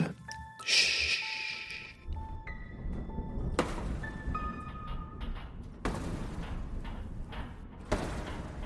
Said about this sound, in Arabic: سمعت صوت كده عامل زي طرق باب